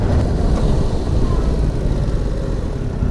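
A Yamaha R7 sport motorcycle's two-cylinder CP2 engine drones steadily while riding, a loud, dense low rumble with a rough throbbing texture and wind-like hiss, no talking.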